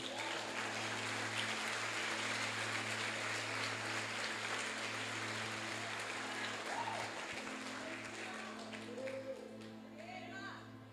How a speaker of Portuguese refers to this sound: Vamos dar um forte aplauso a Jesus.